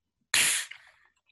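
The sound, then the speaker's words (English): A can of nitro beer, for mixing a snakebite with English cider in a glass, cracks open with a sudden sharp release, followed by a loud hiss of escaping gas that fades out over about half a second. “This has got the nitro here too. Let's listen to this.”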